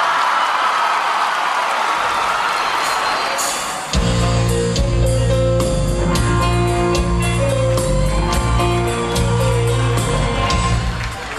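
A large audience claps and cheers loudly for a few seconds to welcome a guest singer, then a band strikes up and the music takes over while the crowd noise carries on faintly underneath.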